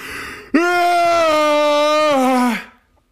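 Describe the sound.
A person loudly imitates the long, drawn-out yawn of a man who drank heavily throughout a long-haul flight, a sustained voiced groan that holds steady for about two seconds before sliding down and fading, with no other talk.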